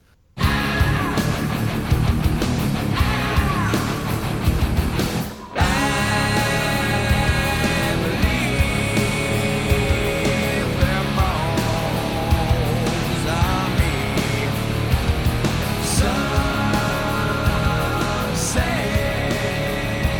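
A loud, dense heavy rock guitar riff with screamed vocals, driving steadily throughout, with a brief cut in the sound about five seconds in before the music slams back.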